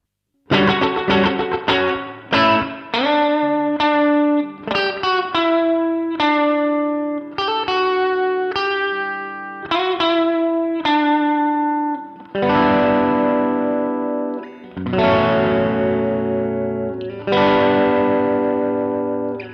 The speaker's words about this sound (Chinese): 那我们呢，先加上一块混响效果器，还是跟刚才一样，来一个弹簧混响。